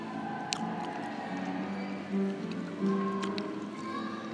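A few sustained piano notes ring out, played by a man on a piano in the arrivals area of Cork Airport, nearly buried under a steady wash of crowd murmur and occasional clatter.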